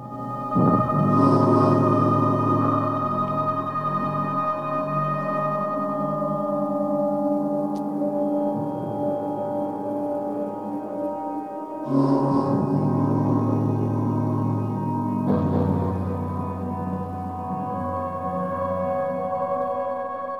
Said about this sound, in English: spooky, ominous, sci fi tones. Very apt score for the film we'll be talking about here in just a little bit. The name and that sound, that eerie sound, would lead one to think that we are going to go deep into horror.